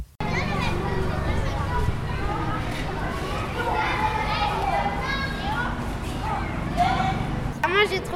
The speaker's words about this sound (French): Le déconfinement a rimé pour les élèves de primaire avec le retour à l'école. Depuis le 14 mai, la cour retentit à nouveau des cris et des rires des enfants.